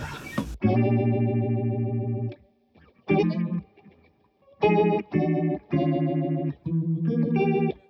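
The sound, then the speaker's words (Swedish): Electric guitar played through an Ibanez Leslie-style rotary effect pedal, strumming several sustained, swirling chords with short pauses between them. Fairly loud, with no talking. “Den blir lite, den blir lite djupare än ja, men, Leslie, men den, den är cool ändå tycker ja.”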